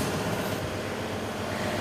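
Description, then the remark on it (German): A magazine binding machine in a print shop staples and automatically binds a magazine, an instalment of a serial novel from the Hexer series, after embossing. It runs with a steady, dense mechanical rumble and whir, constant in loudness throughout, with no distinct separate strikes and no voices. “Ja, jetzt ist, wurde es gerade getackert. Nach dem Prägen äh, diese Maschine jetzt auch noch automatisch äh, äh, sozusagen die Zeitschrift bindet.”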